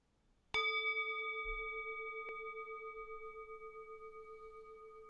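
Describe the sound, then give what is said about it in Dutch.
A bell is struck once and rings out with a clear, sustained tone that shimmers and slowly fades, with a faint second tap partway through. No voices accompany it. “Blijf hardop herhalen totdat je de bel weer hoort.”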